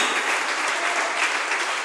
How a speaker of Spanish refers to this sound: Denle un aplauso poderoso Israel. Él es el poderoso. Aleluya.